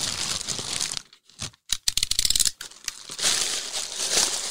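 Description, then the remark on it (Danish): A vacuum cleaner bag is cut open in a studio, releasing a grey cloud of dust: loud papery crinkling and rustling, broken by a couple of short pauses and sharp crackling tears, then steady scratchy rustling. No one speaks. “hvor hun åbnede en støvsugerpose midt i studiet”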